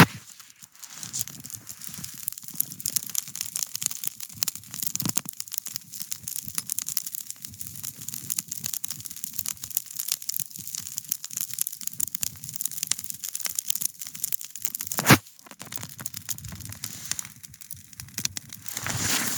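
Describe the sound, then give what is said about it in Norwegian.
A wood campfire, being fed with more wood, crackles steadily, a dense stream of small pops and snaps with a low hiss underneath, and one sharper crack near the end. No one speaks. “Mate på bålet med ved, og vår litt mat. Hør for en deilig bållyd.”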